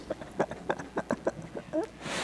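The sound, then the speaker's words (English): A single quick, papery swish of a book page being turned arrives at the very end, fairly loud, following a couple of seconds of soft, rhythmic voice-like murmuring. “Page turn, you know.”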